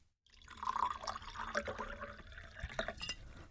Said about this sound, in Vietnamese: rót rượu vào cốc thủy tinh